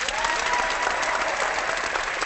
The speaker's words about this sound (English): Let's hit some clapping.